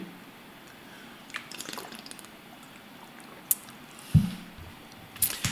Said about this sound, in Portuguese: Deixa eu beber uma água aqui.